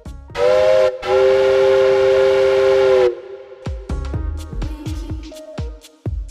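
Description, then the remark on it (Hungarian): A loud, sustained steam whistle blares for about three seconds, then a smoking steam train on the first track beside a station hall chuffs with rhythmic, uneven puffs and hissing bursts. “kin valami fújás zihálás hallatszott. Gina oldalra nézett. A csarnok belső ajtaja pályatestre nyílt. Az első vágányon ott füstölgött egy vonat.”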